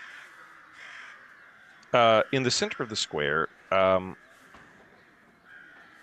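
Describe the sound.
Birds call in the background, a cluster of loud, harsh caw-like cries bunched in the middle, while a person speaks quietly over a faint outdoor hum.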